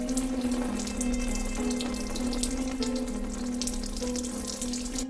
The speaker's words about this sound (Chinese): 而女友有时候洗澡的时候，总觉得有人在盯着她，常常晚上睡觉会听到没人使用的浴室会传来有人打开水的声音。